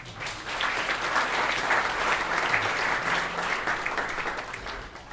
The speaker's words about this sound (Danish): Giv ham lige en stor varm hånd.